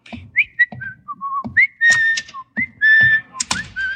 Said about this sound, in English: Whistling in the hall is just the first of a long and distinguished line of violations I've got planned for today.